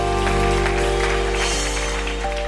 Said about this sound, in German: Ja, komm, lass uns Jesus nochmal einen Applaus geben über das, was er getan hat.